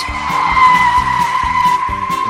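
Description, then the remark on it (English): Car tires squeal in a loud, sustained screech as vehicles skid, with a low engine rumble pulsing underneath throughout. “It stopped the cars.”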